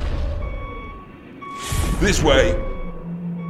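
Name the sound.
truck reversing warning beeps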